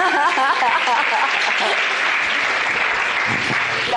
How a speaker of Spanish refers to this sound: Un aplauso para mi diamante.